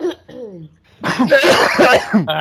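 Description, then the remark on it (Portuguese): A loud coughing fit: a couple of short hacks, then a rapid burst of harsh, repeated coughs running together in a rough, rhythmic cluster. “Cara, cara, eu tô tossindo igual um velho.”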